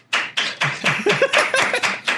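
A short burst of applause: roughly nine sharp, even claps in a quick, steady rhythm, fairly loud and with no voices over them.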